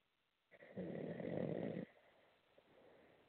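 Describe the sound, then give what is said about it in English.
A single loud, rasping snore rumbles for about a second over a muffled, narrowband phone line, followed by quieter breathy background noise and no talking. “Now I hear like snoring.”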